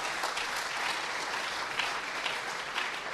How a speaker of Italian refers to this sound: non voglio come dire, non voglio strappare degli applausi fin troppo facili, eh?